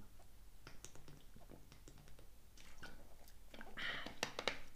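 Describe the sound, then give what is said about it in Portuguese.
Someone drinks water: a run of small wet sips, swallows and mouth clicks, growing louder toward the end with a few sharp, splashy gulps. No one speaks. “Portanto, portanto, vamos fazer uma pausinha para a água porque é o melhor ponto que existe.”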